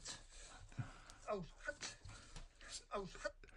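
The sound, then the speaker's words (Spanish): A dog pants in quick, breathy bursts, fairly loud, with a few high whimpering squeaks mixed in, while a person's voice murmurs in the background, as the dog plays a catch-and-release game with two balls. “Ahí estoy yo con bicho, con dos pelotas”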